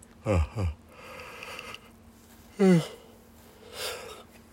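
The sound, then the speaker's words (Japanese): Repeated yawning: two short voiced yawns with a falling, groaning pitch, long breathy inhales between them, then another drawn-out yawn and a soft airy exhale, with no talking. “ちょっとあくびはちょっと連発止まんないですね”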